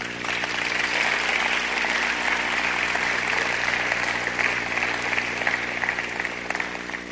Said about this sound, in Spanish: Porque si no fuera por su gracia el día de hoy, manito, no sé dónde estaríamos, ninguno de nosotros. un aplauso al Señor de gratitud.